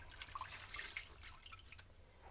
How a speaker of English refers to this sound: So, hold on, guys. I'm, I know I'm running water.